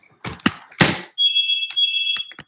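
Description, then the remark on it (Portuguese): A few dull knocks and rustles, then a telephone rings during a live program with two long, steady, high-pitched electronic bursts separated by a brief gap, fairly loud with no talking. “Gente, está tocando o telefone.”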